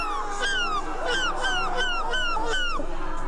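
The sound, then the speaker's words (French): A world champion of seagull-cry imitation imitates a seagull at the Dunkirk carnival, letting out a quick run of about six or seven shrill, downward-sliding cries in steady rhythm, loud, over faint background crowd noise. “le 13h de TF1 s'est bel et bien pris de passion pour le champion du monde euh, du cri de la mouette”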